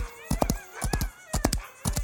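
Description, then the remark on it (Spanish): Horse hooves clip-clop in a steady, repeating rhythm of sharp knocks grouped in threes, while a thin, wavering horse neigh rises faintly above them, as the horse is urged on with a shout of "¡Arre!". “¡Arre!”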